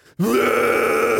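One sustained, loud, guttural growl from a single voice, a harsh demonic metal-style vocal made with the mouth, held steadily for about a second after a brief quiet start.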